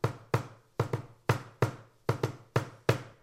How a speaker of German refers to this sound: Und dann haben wir auch die Leute mit ihrem Finger rhythmisch klopfen lassen.